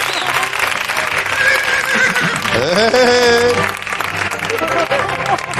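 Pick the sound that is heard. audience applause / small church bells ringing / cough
audience applause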